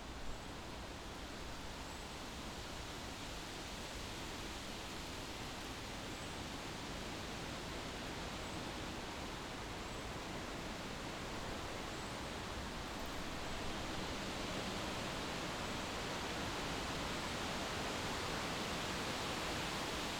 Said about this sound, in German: Eher aber gleicht das Geräusch einem vielstimmigen Plappern, in dem man kein Wort mehr versteht. Auf der nächsten Aufnahme hören wir eine Schwarzpappel in Wien-Floridsdorf.